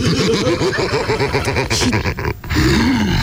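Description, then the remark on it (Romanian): A person growls in a deep, rough, sustained snarl, imitating a wolf, loud for about two seconds, breaking off briefly before a final rumbling growl. “Eu sunt lupul.”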